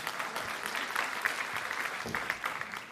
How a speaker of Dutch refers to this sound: Eh, dank jullie wel. Applaus.